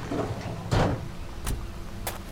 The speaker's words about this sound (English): you see a large black van driving down the road, passing right by where you are. The van skids to a halt on the other side of the barn, and the side door swings open.